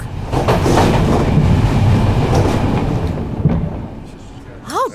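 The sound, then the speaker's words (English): A passenger train rumbles steadily along the tracks, a loud low roar broken by faint rhythmic clacks. A short, rising squeal cuts in at the very end. “He better be on this stupid train.”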